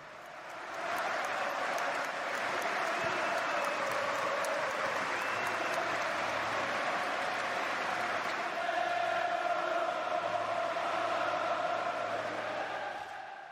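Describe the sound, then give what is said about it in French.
The Liverpool stadium crowd stands and applauds steadily in the seventh minute of a match against Manchester United, a minute of applause honouring Cristiano Ronaldo after the loss of one of his twins; a dense, continuous wash of clapping with a broad murmur of voices underneath, swelling slightly near the end and holding loud throughout. “Comme le numéro de maillot de Ronaldo, le stade de Liverpool s'est levé et a applaudi.”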